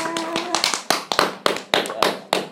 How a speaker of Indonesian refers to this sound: Tepuk tangan cuy